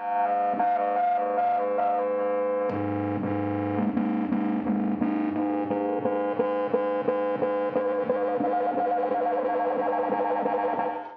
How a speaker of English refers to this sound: this LFO and the pulse that create the beats that you hear. But the sound also creates beats if you have two frequencies that are really close to each other.